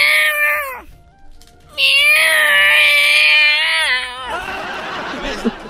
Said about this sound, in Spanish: ¡Estos son gatos!